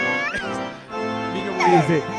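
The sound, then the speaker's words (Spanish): A newborn baby crying just after being delivered by the doctor at birth, a loud, continuous, high-pitched wail that wavers and slides up and down in pitch, with a brief catch of breath partway through and no one talking. “Y escuchamos este llanto.”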